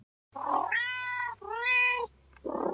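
A house cat meows twice in long, drawn-out, tonal cries, fairly loud, bracketed by brief noisy hisses or rustles at the start and end, with no talking.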